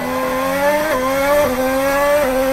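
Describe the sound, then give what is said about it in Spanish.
A race car engine hums steadily at low revs through curve number 9 of a racing circuit, its droning harmonic tone stepping slightly up and down with small gear or throttle changes, loud and continuous with no voices. “Ferradura, la curva de la naranja, Pineriño, la curva número 9, todo en baja, ¿eh? a baja revolución.”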